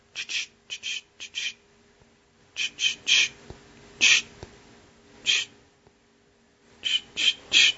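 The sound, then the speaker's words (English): Crisp leaf-crunching footsteps of a deer stepping through crisp, dry fallen leaves in the fall, coming in short clustered bursts of three or four, pausing between groups; no voices. “And you'll start to notice things like when you do see a deer, the deer, when you hear it coming through the fallen leaves in the fall, when the leaves are crisp, will sound like.”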